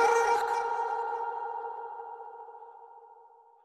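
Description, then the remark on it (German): A short intro jingle ends on one bright, chime-like synth tone that strikes clearly and rings out, slowly fading over several seconds with no voices. “Ihr habt jetzt gerade das neue Intro gehört von uns.”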